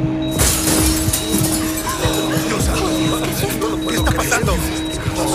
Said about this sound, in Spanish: El sonido de la madera resquebrajando el cristal altera los campos electromagnéticos. El agua se derrama junto con los peces.